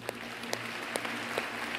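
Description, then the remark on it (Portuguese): A church audience applauds steadily to officially welcome new members, a dense wash of clapping with sharper accents landing at a regular beat, over a low electrical hum; no one speaks. “Receba esses irmãos da nossa igreja de maneira oficial com uma salva de palmas.”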